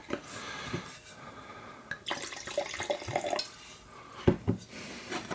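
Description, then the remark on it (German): Wine is poured into a glass to top it up, a soft splashing trickle with gurgling, rising tones and a few light clinks of glass, ending in a brief louder splash. “Ein bisschen nachschenken.”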